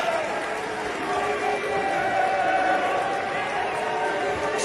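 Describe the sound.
A large crowd boos a Republican senator loudly and steadily, a dense sustained roar of many voices with a low drawn-out groaning tone running unbroken through the whole stretch.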